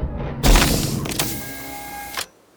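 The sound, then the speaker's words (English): A loud spaceship landing effect in a quiet suburban neighborhood: a sudden heavy rush of noise settles into a steady mechanical whir with a thin whining hum, then cuts off abruptly into silence. “Now to land my spaceship.”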